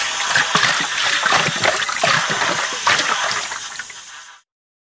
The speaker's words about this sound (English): The water jet, please, Miss Rabbit, orders the dentist. He uses the water to clean Mr. Dinosaur's teeth. Slush, slush, slush.